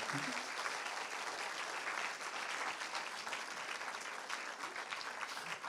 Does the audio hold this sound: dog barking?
no